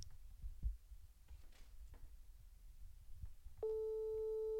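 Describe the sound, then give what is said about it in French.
A phone call's ringing tone, the first ring of an outgoing call, starts near the end: a steady, clear electronic beep that holds on after a stretch of quiet, low rumble, heard through the line at moderate level. “Première sonnerie. On a le droit à combien de sonneries”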